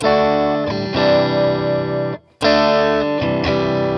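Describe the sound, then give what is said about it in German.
An electric guitar played through a boost pedal, on the amp's clean channel with the Tube Screamer switched off, rings out loud, gritty sustained chords, breaks off into a brief silence with a click, then resumes with more ringing strums. “Und dann habe ich da ja auch noch den Boost, drück den mal. Wie der klingt der?”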